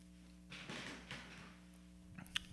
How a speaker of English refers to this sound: Very loud wooden chair.